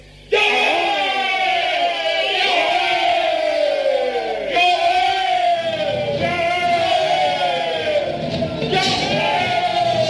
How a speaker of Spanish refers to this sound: Y cuando yo les dé la señal, quiero que griten todos juntos. Ahora, gente de Israel, gritad en el nombre de Yahvé, nuestro Dios y Señor.